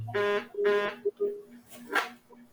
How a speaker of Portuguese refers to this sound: O que, foi essa buzina aí? Ah, pra mim que ela tinha apertado o botão da coisa e fez a buzina.